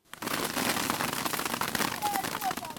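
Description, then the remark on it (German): Dates pour down onto a huge plastic tarp as a man up in a date palm shakes the tree, at the Siwa oasis in the desert near the Libyan border: a dense, steady patter like a heavy rain shower of countless quick, crackling impacts, loud throughout. “Wie Platzregen fallen Datteln auf eine riesige Plastikplane.”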